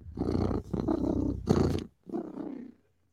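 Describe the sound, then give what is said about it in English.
A person imitates a cat purring, making a low, rumbling throaty sound in several steady bursts with short pauses between them, lasting about three seconds. “I'm saying if I'm purring, I'm happy.”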